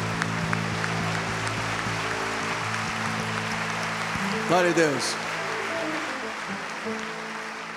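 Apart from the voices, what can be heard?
audience clapping hands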